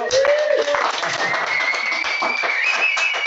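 Steady, dense applause from a group welcoming a guest, a continuous crackle of many hands clapping at once, fairly loud throughout with a few thin tonal whistles or cheers drifting above it.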